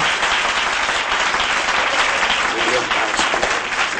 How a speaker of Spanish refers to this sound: Los asistentes, entre los que está Ignacio, se levantan emocionados mientras aplauden fuerte